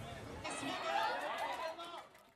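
Dense crowd chatter from a packed, full house fills the space, a steady wash of many overlapping voices with no single speaker standing out, moderately loud and continuous before easing off slightly at the end.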